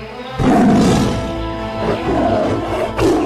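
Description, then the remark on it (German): A tiger roars loudly, a deep rumbling growl that surges in after a brief quiet start and sustains with rough swells for a few seconds, no speech present. “Es war einmal ein Tiger, der in eine Falle gegangen war.”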